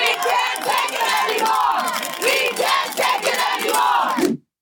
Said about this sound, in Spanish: Este es el grito de miles de enfermeras de dos redes de hospitales en Nueva York que permanecieron en huelga por tres días para exigir, entre otras cosas, un aumento de personal para poder proporcionar un mejor servicio a sus pacientes.